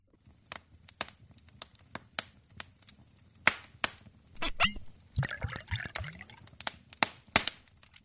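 Whiskey is poured into a glass, with sharp clinks and taps of glass around it and a short burst of glugging in the middle.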